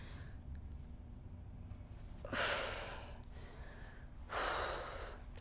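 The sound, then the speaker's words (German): A woman in labor breathes heavily, with two long, forceful breaths a couple of seconds apart over a quiet, steady room hum, and no talking. “Sie atmet. Sie stöhnt.”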